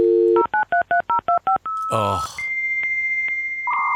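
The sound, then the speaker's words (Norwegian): A 1990s dial-up modem connecting: a dial tone, seven quick touch-tone beeps, then a harsh screeching handshake burst giving way to a steady tone with soft periodic clicks. A person briefly exclaims. “Og nå skal det lastes ned pornobilder på Vinemex.”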